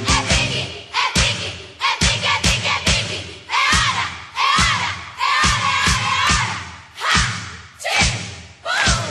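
A children's birthday song plays, with a chorus of bright, shouty young voices over a steady, loud thumping beat that hits roughly twice per second.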